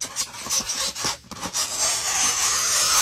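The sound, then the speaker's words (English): Nails scraping across a chalkboard: a harsh, hissy rasp in short back-and-forth strokes, then one long unbroken scrape, fairly loud and with no voices. “Ah, nails on a chalkboard.”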